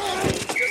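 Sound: football pads colliding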